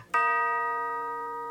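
A clock chime strikes midnight at the palace ball in the story of Cinderella, a loud bright bell tone with rich ringing overtones that hangs on and slowly fades. No one speaks.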